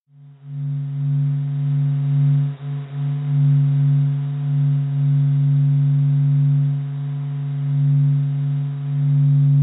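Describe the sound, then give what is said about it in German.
A sonification of the sun: a steady, low droning hum like a ship's horn, held continuously for about ten seconds, with a soft layer of static hiss spread above it, like television noise. “Einmal so ein dumpfes Dü, wie so eine Schiffströte oder so. Ja. Und dann dieses Rauschen, so, das klingt wie so ein Fernseherrauschen.”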